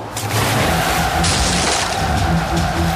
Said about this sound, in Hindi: अरे अरे भयानक मछली हमारे नाव पर वार कर रही है पकड़ो उसे शीघ्र पकड़ो नहीं तो हमारी नाव पलट जाएगी